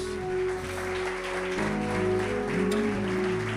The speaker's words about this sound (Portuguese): Vamos aplaudir nosso Deus, vamos.